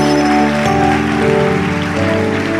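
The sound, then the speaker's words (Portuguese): An audience applauds the Lord in a steady, dense patter of clapping over sustained keyboard or organ chords that shift a couple of times, with no voices standing out. “Vamos aplaudir o Senhor, porque aqui tem temor de Deus.”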